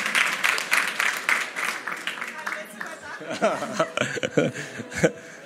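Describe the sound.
A short burst of applause, dense rapid clapping for a couple of seconds that gives way to chuckling, laughter and voices.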